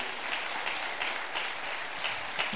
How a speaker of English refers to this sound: Thank you, Pastor Nelson. God bless you. You give uh, Pastor Nelson, the worship team, a hand clap.